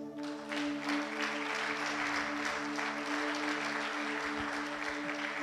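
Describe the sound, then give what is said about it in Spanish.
A crowd claps steadily for several seconds, a dense, sustained wash of applause from a sizable audience, with a faint constant hum beneath it and no voices, applauding that more than 100 people have received the word of God. “Eso merece un aplauso.”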